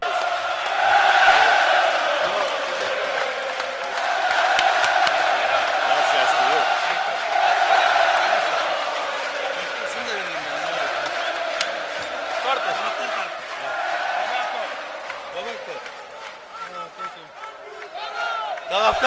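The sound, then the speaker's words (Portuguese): A large stadium crowd cheers as Roberto Carlos signs his contract and kicks balls to the fans, a steady, dense roar of many voices blending together, swelling and easing in waves for the whole stretch, with occasional sharper shouts poking through. “Vamos subir um sonzinho aqui com o Roberto Carlos assinando o contrato e chutando bola para a torcida.”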